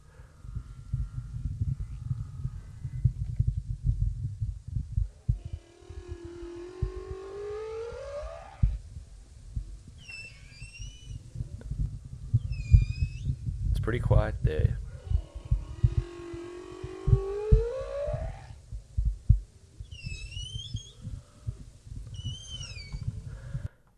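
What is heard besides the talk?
humpback whale song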